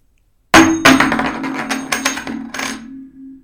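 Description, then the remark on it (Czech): A tossed coin hits the floor with a sharp metallic clink, bounces and rattles several times with a steady ringing tone, then settles as the ring fades out. No one speaks. “takže to hodíme ještě jednou, protože Aha. ty jsi to hodil na zem.”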